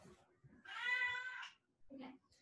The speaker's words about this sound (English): Oh my gosh. Here's my cat. Come here, baby. No, you don't want to? All right.